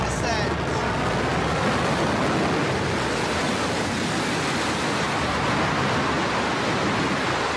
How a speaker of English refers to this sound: And the BE3 engine relights for the final portion of